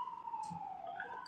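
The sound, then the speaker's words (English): An emergency vehicle siren wails on a street in New York City in a steady, slowly sliding tone, with faint street noise underneath and no one talking. “Oh, sorry for the sirens. I'm in New York.”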